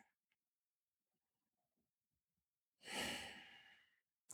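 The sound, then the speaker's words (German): After near silence, one deep, audible breath drawn in and slowly released, fairly loud, like a long sigh, followed by a brief soft sound at the end; a breath taken with a hand on the heart. No talking. “nimm mal einen Atemzug, die Hand auf dein Herz”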